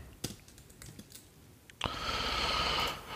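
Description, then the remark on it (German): Irregular clicks of fingers typing on a computer keyboard, a quick burst of keystrokes, followed by a steady rushing noise that fills the second half. No one speaks. “Injowski lässt sich immer so scheiße tippen”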